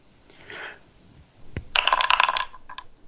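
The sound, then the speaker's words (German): Dice are rolled: a sharp knock, then a quick burst of bright clattering rattles tumbling for about half a second, and a couple of small final clicks as they settle. No one speaks. “Jetzt würfel mal.”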